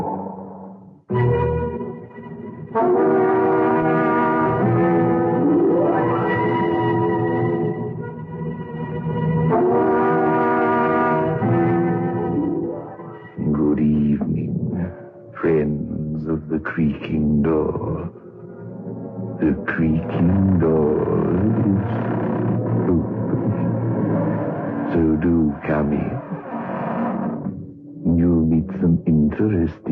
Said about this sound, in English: The creaking door.